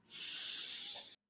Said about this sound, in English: And it's very awkward and very strange to do in front of people, but it sounds like this. If you take a deep breath